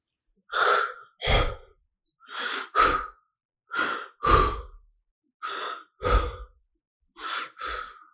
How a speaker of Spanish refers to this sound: Aguardó unos segundos de forzada respiración.